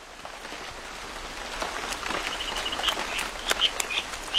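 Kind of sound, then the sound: nature, heavy rain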